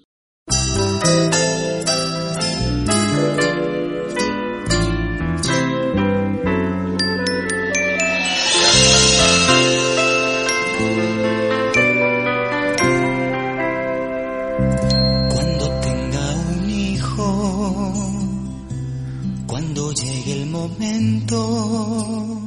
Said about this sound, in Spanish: ¿Qué les parece si nos vamos a una pausa musical y conforme al tema que estamos tratando